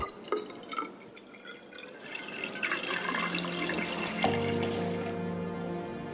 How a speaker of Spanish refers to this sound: A continuación, mezclan los tintes y añaden agua a un cilindro.